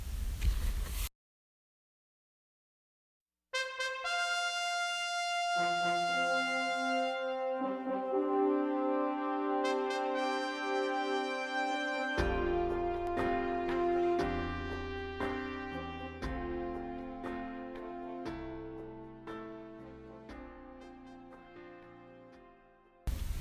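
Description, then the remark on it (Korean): A Korean ballad begins after a brief pause: slow, sustained melodic tones layered in rich harmonies that build steadily and stay fairly loud, with no talking over it. “가사가 처음부터 끝까지 정말 많은 위로가 되니까 곡 들으시면서 가사에 집중해 보시면 좋을 것 같아요.”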